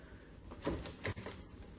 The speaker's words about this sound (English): I'll just open the door